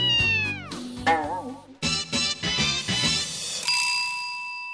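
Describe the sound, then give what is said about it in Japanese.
A cat meows several times in close succession, its pitch sliding downward, then a bright bell-like ding rings out and sustains. No one speaks. “構造寺さんの猫ちゃんか可愛かったです。”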